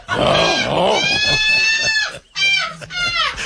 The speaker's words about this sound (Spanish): Ese puerco.